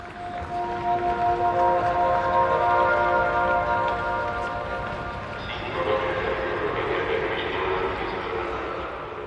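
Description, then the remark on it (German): Busy railway station ambience at the Ostbahnhof in Budapest, Hungary: a sustained tonal train sound rings out over steady rumble, with indistinct echoing voices of announcements for trains leaving in all directions. “Wer hier am Ostbahnhof ankommt, hört unzählige Ansagen der Züge, die in alle Himmelsrichtungen fahren.”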